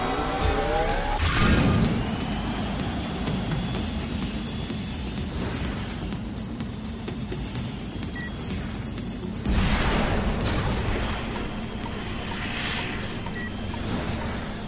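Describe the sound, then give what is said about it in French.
Fast futuristic racing game audio from Wipeout HD: a steady roaring engine drone with whooshing surges, shooting, bright electronic blips and chirps, and louder bursts around two seconds and ten seconds in. No one speaks. “Alors les connaisseurs ont sans doute euh, reconnu euh, ces tout petits sons, ces Wipeout HD, ça va très très vite, ça tire partout et c'est un peu euh, c'est un peu le bordel”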